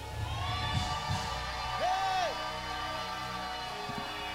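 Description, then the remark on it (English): An audience shouts and cheers together in a sustained, noisy roar, with scattered whoops and raised voices rising above the crowd over steady background music. “They shouted and they praised.”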